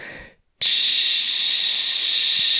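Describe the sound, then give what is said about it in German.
A voice imitates gas escaping from an ordinary grill-type gas bottle as its valve is turned open: a brief breathy hiss, a short silence, then a loud, steady, sustained hiss lasting about two seconds. “Und ich drehe das so auf und es macht nur so.”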